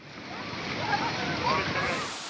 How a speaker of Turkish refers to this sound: sağanak dere yataklarını doldurdu. Taşan dereler sonrası oluşan sel görüntüleri korkuttu. O endişe ve korku vatandaşın kamerasına böyle yansıdı.